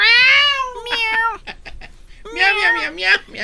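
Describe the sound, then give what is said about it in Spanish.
A person imitates a cat with drawn-out, wavering, loud meows, a long yowl first, then a few short broken sounds and a second stretched meow. “Ya me imagino cómo le hizo el gato.”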